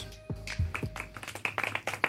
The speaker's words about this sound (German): Applaus für Gott. Ja. Extra lang.